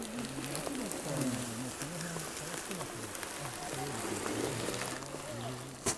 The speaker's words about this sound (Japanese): 流氷の音すごいですねギューってこう氷がミシーって動く感じすごく伝わってきましたね実際目の前にしたら迫力すごいんでしょうね